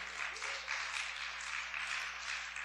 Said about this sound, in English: Hold your applause for a second, because because I got something for you.